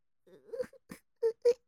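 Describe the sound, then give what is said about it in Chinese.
In a children's story, a voice imitates faint, weak crying coming from under a pile of stacked animals: a wavering, thin whimper followed by a few short, breathy sobs, the last two sharper and higher-pitched bursts, all quiet and over in under two seconds. “这个时候，大家突然听见从那一堆叠起来的动物底下发出了。细小的、微弱的哭声”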